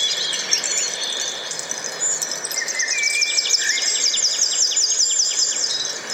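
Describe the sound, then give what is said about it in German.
Dense birdsong from a wake-up alarm sound called Hideout Grove, with rapid repeated chirps and trills layered over a steady natural background hiss, continuous and moderately loud throughout, no voices present. “Und ich mag es total, von der Natur geweckt zu werden, vom Vogelgezwitscher.”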